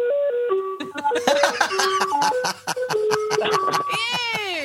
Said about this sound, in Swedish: Det var glassbil. Vi har glassbil också.